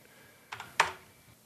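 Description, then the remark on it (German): A few quick keystrokes on a laptop keyboard as someone types a web search: two soft taps followed by a sharper, louder click, with no talking. “Soll ich googeln? Ja, google du. Mein Laptop steht ein bisschen weit weg von mir. Ich kann nicht tippen.”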